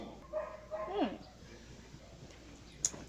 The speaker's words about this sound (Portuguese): deixa os cachorros latir.